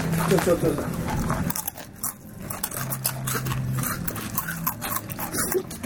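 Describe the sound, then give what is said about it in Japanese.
Loud crunching of Jagariko, a hard fried potato stick snack in salad flavor, a rapid series of sharp brittle bites and chews, with people's voices murmuring underneath. “独自の製法でカリッとフライ、はいはいはい、でこれ書いたのがポイントでじゃがりこは硬さが特徴のお菓子ですって書いてあるうん、だからもうこれ硬い前提のああ、ね、食感を楽しむお菓子なんですよ確かに硬いよ硬、うん、いあ、うんだってカラムーチョとかと比べると全然違うもんかな全然違う”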